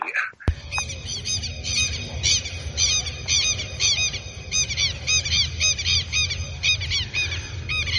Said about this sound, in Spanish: Y aquí a la mañana escuchamos a los teros tres teritos, siempre pisando sobre el pasto, nunca las ramas, siempre caminando sobre la tierra. Así comienza el día.